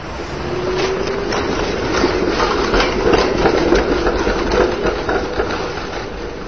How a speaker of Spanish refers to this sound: y no se dio cuenta de que justo delante de él pasaba un tranvía, concretamente el número 30.